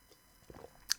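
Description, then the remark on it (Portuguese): Quiet sounds of someone drinking water: a soft wet gulp followed a moment later by a sharp little mouth click, with no talking and only faint background hiss. “Uh, bem, pausa para a água, que isto estou cansado já.”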